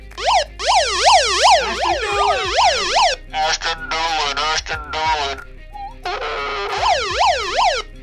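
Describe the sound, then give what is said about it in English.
A loud, fast-warbling siren sweeps rapidly up and down in two close bursts, with a man's voice speaking briefly between them over a processed, radio-style backdrop. “That siren is the worst part about that.”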